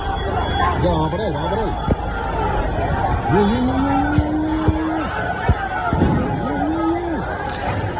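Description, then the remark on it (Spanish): Rival German and Scottish football fans clash in a street in Seville, Spain, near the Sánchez Pizjuán stadium, filmed by bystanders and bus passengers. A rowdy crowd shouts and yells outdoors over a steady street rumble, with long sustained cries and a few sharp bangs or thuds cutting through the commotion. “Pues este era el momento que grababan en vídeo algunos eh, ciudadanos, eh, pasajeros también de un autobús cuando se producía ese enfrentamiento, el más destacado del que tenemos conocimiento hasta ahora entre alemanes y escoceses”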